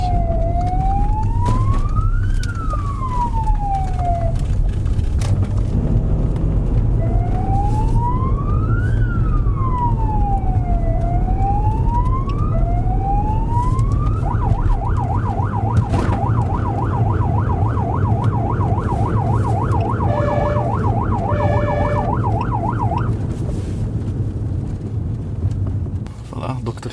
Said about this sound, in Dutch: En als er nog meer verkeer is, dan moeten we de sirene opzetten. Hè. Dan gaat iedereen netjes uit de weg.